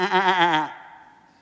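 A single sheep bleats once, loud, with a shaky, quavering tone lasting under a second before trailing off into quiet. No other sounds or voices accompany it.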